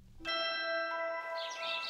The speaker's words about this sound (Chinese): 清晨，窗外的麻雀叽叽喳喳，正在发电报给敌人。